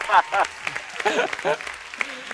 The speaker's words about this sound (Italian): E allora quello. un applauso!